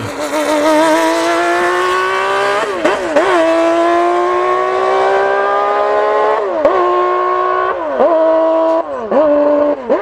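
A Formula 1 car's V12 engine screams loud and close, its pitch climbing steadily and dropping sharply at each of several quick upshifts, with no voices.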